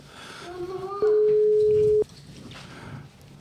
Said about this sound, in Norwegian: Vi ringer han og hører om han plutselig har tid ti. Ringer det her?